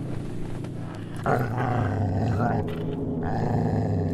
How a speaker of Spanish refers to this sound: Mientras yo seguía experimentando esa extraña sensación, mi perro se levantó y comenzó a gruñir agresivamente hacia la puerta,